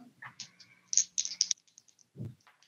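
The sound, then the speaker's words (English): A pair of percentile dice clatters across a tabletop during a game of Dungeons & Dragons, a quick run of sharp rattling clicks and bounces that settle into a few light taps, followed by a soft low thud. “We've been rolling 62. dice tonight.”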